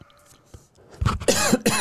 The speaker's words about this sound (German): Jetzt muss ich mal einmal husten. Mach ruhig.